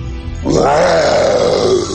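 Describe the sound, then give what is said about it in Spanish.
After a short quiet pause, the bear Balú lets out one long, loud, rough roar, a deep growling tone that swells and then slowly sinks, holding steady until the end. “Balú respondió con otro rugido.”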